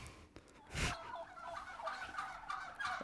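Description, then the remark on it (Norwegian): A hen clucks, a sharp loud squawk early on followed by a steady run of warbling, throaty clucks with no talking. “Og helt til slutt, eh, dere er svenske høner.”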